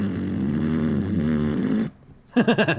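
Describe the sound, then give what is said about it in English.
A person vocally mimics the loud electric buzzing of a joy buzzer, a sustained rough drone lasting nearly two seconds, followed by a brief pause and a few quick pulsing vocal bursts, loud. “you snoring or making electric sounds? Like a, like that was giant, electric sound giant Big joy buzzer on his ankle.”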